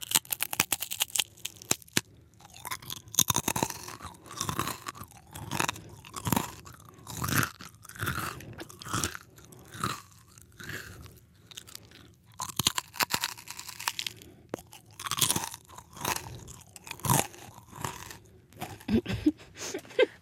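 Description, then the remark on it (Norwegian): Loud crunching and chewing of crispbread, with repeated crisp bites and a steady, irregular chewing rhythm that continues throughout with brief quieter pauses and no speech. “så knekkebrød.”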